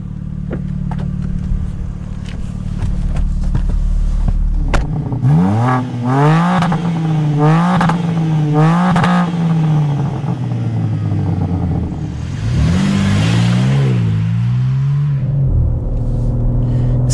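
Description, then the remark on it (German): A BMW M3 Touring Competition with all-wheel drive and eight-speed automatic idles low on the road, then accelerates hard with several rising surges through quick gear changes, eases off, and surges again near the end. Loud, with no talking. “Es wird Zeit, dass ich wieder auf die Straße komme.”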